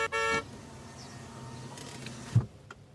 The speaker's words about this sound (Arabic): لك شبو هذا عم بيزمر من غير شي